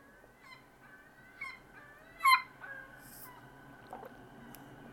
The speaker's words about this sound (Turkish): Tam önümden de bir martının geçmesi. Şu anda martılar önümde dans ediyor. Hı, çok tatlı.